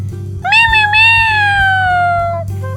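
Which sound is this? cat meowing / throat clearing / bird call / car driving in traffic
cat meowing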